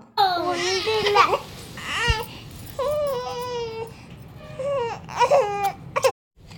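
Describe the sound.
A young child imitates the way a baby cries, producing a string of fairly loud wailing and whimpering bursts with rising and falling pitch that stops abruptly near the end.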